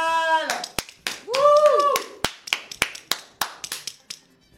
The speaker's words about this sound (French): Premièrement, sachez que je ne me suis pas senti aussi bien depuis 2011. On applaudit donc à la santé mentale